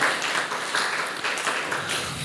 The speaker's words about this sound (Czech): můžeme ještě zatleskat